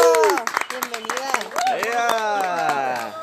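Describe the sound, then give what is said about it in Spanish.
A burst of hand clapping from a small group in Mexicali greets a local performer. The clapping is quick and uneven, with voices calling out and cheering over it for a few seconds. “Un aplauso. ¡Bravo!”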